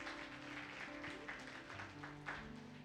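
A church audience applauds for Jesus in a steady, dense wash of clapping from many hands, with sustained keyboard or organ tones holding underneath throughout.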